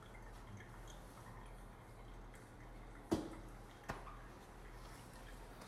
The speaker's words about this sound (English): We'll brew that guy. Within three minutes, it should be dripped out. 380 grams of water, 28 grams of coffee.